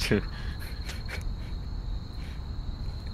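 Insects chirp steadily outdoors in a park, a dense, continuous high-pitched trill with a few brighter bursts standing out, set against a low rumbling ambient background with no voices.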